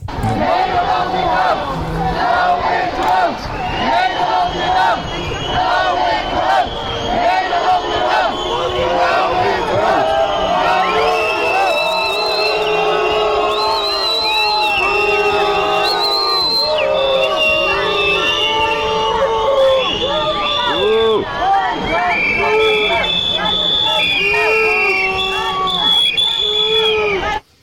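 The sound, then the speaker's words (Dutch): A large crowd boos and chants together as the glass coach rides past in a procession in the Netherlands, the chant sounding like "Nederland in nood". Many voices overlap loudly and continuously, with drawn-out jeering calls rising and falling throughout and a dense background of shouting. “Nee, en ik vind dat ze extreem slecht de koe nadeden. Met boe.”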